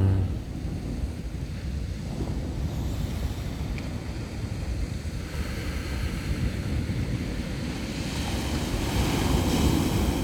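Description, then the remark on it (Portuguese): Steady ocean surf rolls and washes continuously, a broad rushing roar with gentle swells of intensity, heard alone with some wind buffeting the microphone. “Ouvimos o mar à nossa volta.”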